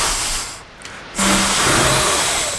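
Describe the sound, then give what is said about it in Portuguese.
A dense, static-like roar of crowd noise from an old video game, the crowd whistling at a spectacular play, briefly dipping and then surging back louder with a faint tonal hum, like a badly tuned television. “Nuno, isto não é público. Isto é uma televisão mal sintonizada. Não era, era o som do público.”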